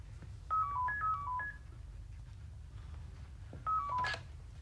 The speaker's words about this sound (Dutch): het loopt door, die telefoon. Dat iedereen zo naar die telefoon van Alain moet lopen, dat loopt door.